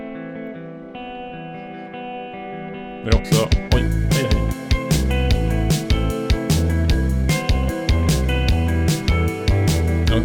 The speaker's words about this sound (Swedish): sen gräver jag lite vidare i den eh, i det, de sumpiga träskmarkerna som är rysk och sovjetisk popmusik. Men eh, så här låter den väl hyfsat idag. Eh, en del av den i alla fall. 2018, ganska nyss ändå.